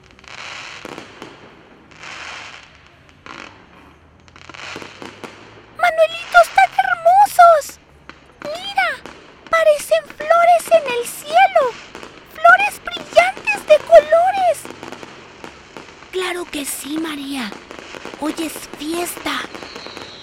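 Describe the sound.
Fireworks pop and crackle in a string of sharp bursts while voices and other sounds carry on over them.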